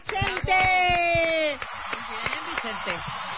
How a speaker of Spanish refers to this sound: Increíble. Un aplauso para